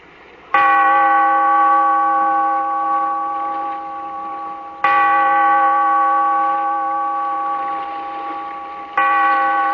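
church bell tolling

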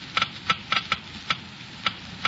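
geiger counter clicking slowly

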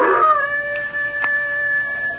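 hound dog howling

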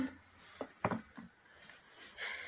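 drinking water

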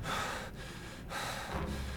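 agitated heavy breathing

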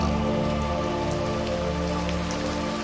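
rain falling

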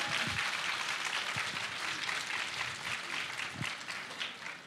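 loud applause

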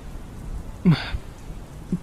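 heavy rain falling

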